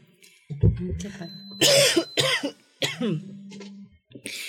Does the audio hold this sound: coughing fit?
yes